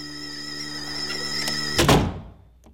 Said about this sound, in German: Er knallt die Tür hinter sich zu.